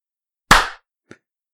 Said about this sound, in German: Ich klatsch da mal, ne? Ja, klatsch doch mal. Ja, klatsch ich dir eine, ne? Jetzt klatscht sie.